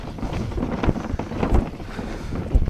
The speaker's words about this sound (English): Um, as you might hear the sound effects, I'm going over some slushy snow. This will be over soon. Sorry, the, the bin is really full.